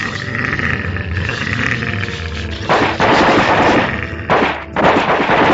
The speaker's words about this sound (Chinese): 我们不得不再次开枪击倒他们。